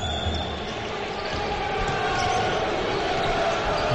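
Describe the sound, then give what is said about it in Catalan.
A loud, dense arena crowd roars steadily throughout, with a sustained wash of voices and cheering and faint basketball bounces in the mix, no single voice standing out. “hem de cridar perquè si no no ens sentim aquí amb un molt bon ambient”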